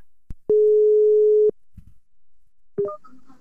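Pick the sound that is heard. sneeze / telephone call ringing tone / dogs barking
telephone call ringing tone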